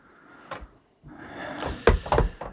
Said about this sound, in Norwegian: Bank, i bordet. Bank i bordet. Bank i bordet.